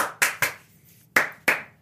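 Five sharp hand claps, three in quick succession, then a short pause before two more. Each clap is crisp and bright with a quick decay, and no voices are heard.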